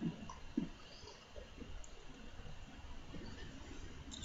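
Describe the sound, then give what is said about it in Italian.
Someone takes a quiet sip of water, with a couple of soft wet gulps near the start, followed by faint swallowing and low background noise. No one speaks. “Eh, allora, perdonate che bevo un goccio d'acqua.”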